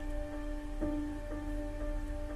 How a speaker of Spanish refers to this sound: Por encima solo se escuchan los autos pasar arriba de la autopista.